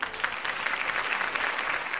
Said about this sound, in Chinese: 啊，搿个搿搭应该有得掌声啊！大家呱唧呱唧。